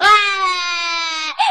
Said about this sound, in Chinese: 小弟弟害怕极了，扑噔扑噔退到门边，又给门槛儿绊了一下，砰的一声坐到地上，饭碗也给摔成了几瓣。小弟弟揉着屁股，哇哇大哭起来。